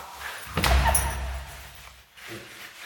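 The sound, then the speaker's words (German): A door is pulled shut with a single heavy thud that rings out briefly, followed by a few quieter clicks and rattles as it is locked with a key. “Kannst du die Tür abschließen?”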